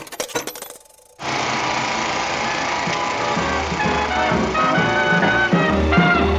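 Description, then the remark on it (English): A Panoram 2000 film jukebox powers up with a burst of rapid mechanical clicks and rattles, a brief pause, then a loud, steady wash of music from a soundie abruptly kicks in and keeps playing. “Let's power up the Panoram 2000 to listen to a soundie”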